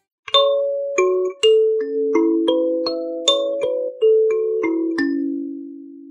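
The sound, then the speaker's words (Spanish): A hand-held kalimba plucked in a gentle, unhurried melody, roughly a dozen bright metallic notes that ring and overlap as they fade, played alone with no voices. “Es la calimba y con este sonido saludamos a Marian.”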